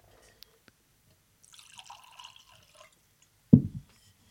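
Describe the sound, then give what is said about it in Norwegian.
A fizzy sparkling wine made from Malvasia grapes pours into a glass with a soft, hissing, bubbly splash lasting over a second, then a single louder clunk, like the glass being set down. “Jeg må putte den i et sånt uh, glass vi kan se i.”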